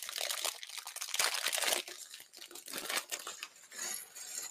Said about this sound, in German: Ich kann aber erzählen, was ich mache und selber ein bisschen knistern und einfach ein paar Clone Trooper aufbauen.